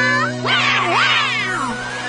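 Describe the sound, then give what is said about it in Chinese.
A jaguar cub calls with a few high, wavering mews that rise and fall in pitch, fairly loud and overlapping, over a steady low hum with no talking. “Come on，美洲虎宝宝！”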